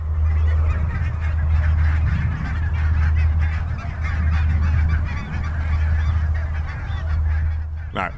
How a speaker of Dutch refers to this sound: Namelijk de brandgans die net overvloog. Want die tot kort, terwijl wij de spullen aan het neerzetten waren, zaten ze hier heel rustig eh, in het weiland te zitten.